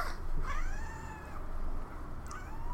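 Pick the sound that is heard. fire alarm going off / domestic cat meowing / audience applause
domestic cat meowing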